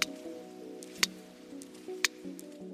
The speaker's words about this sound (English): Or echolocation clicks sperm whales use to find food.